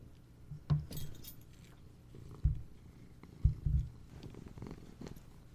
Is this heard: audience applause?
no